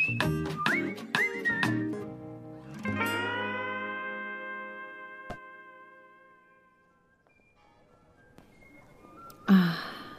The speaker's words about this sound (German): Hören Sie das, liebe Zuhörerinnen und Zuhörer? Die Kirchenglocken und eine Querflöte und das geschäftige vorweihnachtliche Treiben der Stadt.